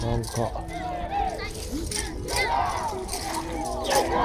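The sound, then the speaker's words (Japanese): About 80 people in costumes dance and shout and chant together in loud, rhythmic bursts like a cheer squad mid-performance, voices overlapping, with steady crowd noise filling the gaps between calls, in a rural area. “80人ぐらいが踊、服をつけて、なんか応援団というか、すごいな”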